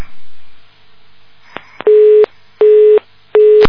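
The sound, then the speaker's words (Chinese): A telephone busy signal sounds three times, each a steady mid-pitched tone lasting about a third of a second with short gaps between, after a couple of faint clicks on the line. “他刚刚的意思就是，师傅说众生很可怜，后来我带他到另外一个地方，接下来就嘟嘟嘟了”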